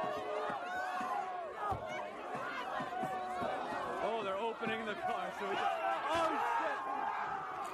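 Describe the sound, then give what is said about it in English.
A dense crowd of protesters shouts and cheers together after freeing an arrestee from a police car, many excited voices overlapping loudly and continuously, with a few exclamations rising above the din. “Protesters opened the door of the police car on the other side of the car from where the police were, releasing the arrestee.”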